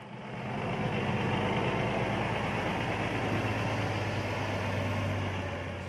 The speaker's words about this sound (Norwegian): En diger semitrailer kjører inn porten i et dyrereservat i Limpopo i Sør-Afrika. Datoen er 1. mai. Det er bare minutter til de 33 løvene skal settes fri.